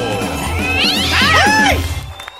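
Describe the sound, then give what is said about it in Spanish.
A cat named Diva lets out a loud, drawn-out aggressive yowl that rises and bends in pitch for about a second, heard over a low, steady background hum. “Ah, viene peleonero y su gato, Diva, que está le Está peleonero, está peleonero.”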